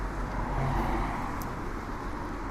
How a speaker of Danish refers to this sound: Som alle kan høre, så er der meget trafik her. Ja, ja, men det er, det er den gamle Amtsvej her, øh, mellem Sorø og Holbæk, som går ind igennem. Øh, der er altså noget voldsom trafik i hovedgaden.